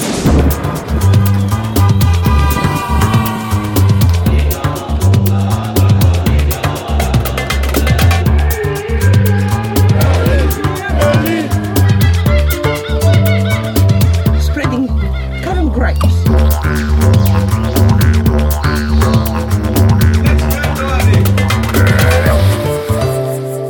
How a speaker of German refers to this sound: Ihr habt's gehört, ich habe eine neue Waschmaschine. Und natürlich habe ich da gleich mal mein Mikrofon reingehalten.